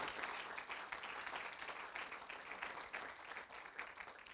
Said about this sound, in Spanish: Dale un aplauso entonces a la sangre del Señor.